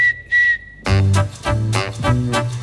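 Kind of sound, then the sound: human body sound, whistling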